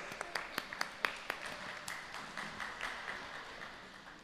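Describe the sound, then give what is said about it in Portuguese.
A crowd breaks into applause, with several sharp, distinct claps standing out at first before blending into a steady, dense wash of clapping that gradually thins toward the end. “Vamos aplaudir mais uma vez.”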